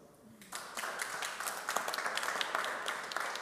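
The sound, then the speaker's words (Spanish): Audience applause for someone who has just answered a question about a Bible verse breaks out after a brief quiet start, many hands clapping in a dense, steady patter that holds at a moderate level to the end. “Un aplauso como si fuera usted el que contestó.”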